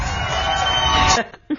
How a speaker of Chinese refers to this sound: 上台鞠躬，掌声接一下。